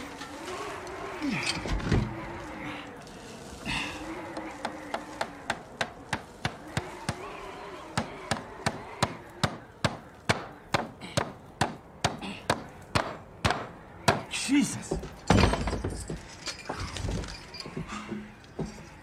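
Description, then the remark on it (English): A long run of steady hammer blows driving nails into two pieces of wooden board to fix something busted, dozens of sharp knocks in quick rhythm, with voices and background sound murmuring underneath. “Give me another piece of wood. Yeah, I need a nail.”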